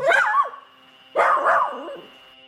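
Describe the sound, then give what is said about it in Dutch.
Two yappy, high-pitched barks from a small dog reacting to its owner's voice, each a bit drawn out and whiny, heard through a thin, tinny phone line with a steady faint hum underneath. “Ik voel me verbonden met het gehaag van mijn hondje aan de telefoon als hij reageert op mijn stem.”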